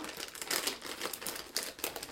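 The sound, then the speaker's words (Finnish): A crinkly plastic package of crickets being opened, with irregular bursts of sharp, papery crackling and rustling that rise and fall over a couple of seconds, no voices. “Saa oota, mä avaan sitä vähän enemmän, niin saa haistaa.”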